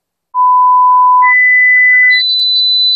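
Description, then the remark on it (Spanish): Three loud, steady electronic beeps climbing in pitch, each a sustained high tone held for nearly a second, stepping upward one after another with no talking, in a Spanish radio advert for Sonofim from Pharma OTC. “Pitidos, Sonofim.”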